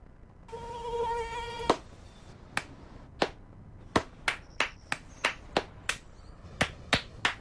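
A thin, high mosquito buzz whines for about a second, then a sharp slap cuts it off and a string of quick hand claps or slaps follows in an uneven rhythm.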